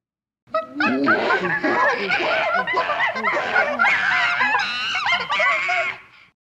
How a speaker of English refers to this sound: I was unclear as to the meaning, but I suspected they were noises emitted by the chimpanzees. Perhaps they were alarmed.